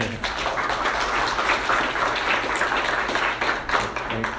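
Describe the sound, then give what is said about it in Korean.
A room full of people applauds steadily to greet visitors, a dense wash of many hands clapping at once that stays fairly loud and even for a few seconds, with no voices standing out. “우리 인사하실 때 박수 할까요?”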